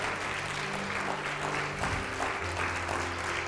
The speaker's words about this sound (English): Please, if you don't mind, the boys are going to show you what real clapping looks like when the Pars win 4 0. Right, give us 60 seconds clap, boys. Come on. Come on, boys.